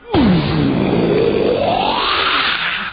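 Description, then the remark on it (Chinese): A man performs vocal mimicry (kouji) of a tiger's roar, for a tiger coming out of a mountain cave in a story: one loud, sustained growl that starts high, dips low and gravelly, then slowly rises again over about three seconds, with no speech. “就是虎啸老虎叫。”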